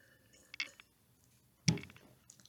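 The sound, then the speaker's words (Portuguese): A small sip from a drink: a faint wet slurp, then a louder swallow or clink of the cup, with quiet in between and no talking. “só um golinho”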